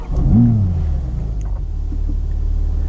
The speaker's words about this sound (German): Um da alles einstellen zu können, muss ich allerdings nur den Motor starten.